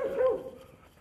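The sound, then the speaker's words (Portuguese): A dog gives one short, tonal bark that rises to a whiny edge before tapering off into quiet. It is heard alone, with no talking. “Sim, eu estou falando com um cachorro.”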